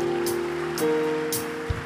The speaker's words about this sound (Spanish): Si lo cree, aplauda fuertemente al Señor.